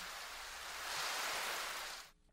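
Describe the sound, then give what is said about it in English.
Steady, dense hiss of rain falling in New York, swelling slightly midway before cutting off abruptly near the end. No voices, just a continuous wash of even rainfall. “It's raining right now.”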